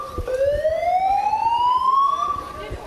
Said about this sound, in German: Kurz darauf geben die Rauchmelder Alarm. Von jetzt an zählt die Zeit.